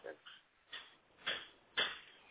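A dog barks three times in the background, short sharp yelps spaced about half a second apart.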